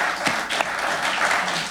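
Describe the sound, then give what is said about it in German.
A brief burst of audience applause for two people being introduced, steady dense clapping from many hands at moderate volume with no voices, lasting under two seconds. “Auch für, für die beiden bitte einen kurzen Applaus”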